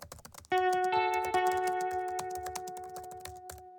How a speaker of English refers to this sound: I click on it, and as soon as I'm done reading, I start typing my email.